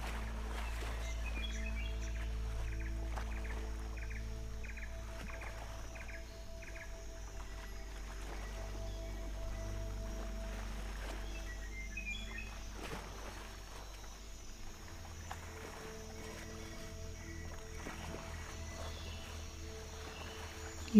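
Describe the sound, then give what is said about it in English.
Soft bird chirps repeat in short bursts over a steady, low ambient drone, with insect-like trilling in the background; the whole soundscape stays quiet, with no voices. “keep walking until the sound of the birds becomes louder and until you reach an opening leading you from the beach into the jungle.”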